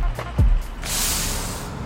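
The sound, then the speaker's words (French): Inside a bus: a steady low engine rumble, a dull thump near the start, then a long airy hiss of air that carries on to the end. Nobody speaks. “Allez, viens, on monte dans ce bus.”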